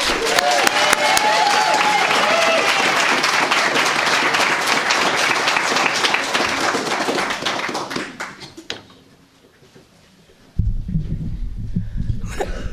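A crowd applauds loudly and steadily for several seconds as a reader comes up to read a passage from a manuscript, the clapping thinning and fading away, followed by a brief lull and then a low, rumbling thump of handling noise.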